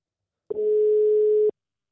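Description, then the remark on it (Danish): A telephone ringing tone heard while calling a friend: one steady, clear electronic beep lasting about a second, starting and stopping abruptly, with no voices around it. “Og nu ringer vi til ham, så vi kan komme i gang med dagens afsnit.”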